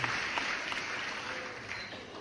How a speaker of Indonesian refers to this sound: Tepuk tangan, tepuk tangan nih, tepuk tangan, tepuk tangan.